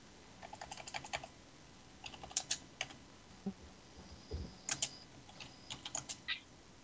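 Crisp keyboard typing in irregular bursts of rapid clicks with short pauses between, including a few heavier key strikes, with no voices; someone typing a post into the Giant in the Playground forum.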